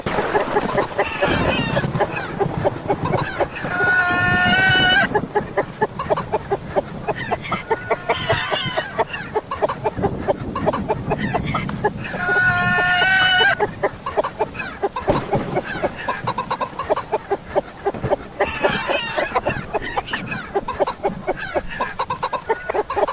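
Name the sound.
hen clucking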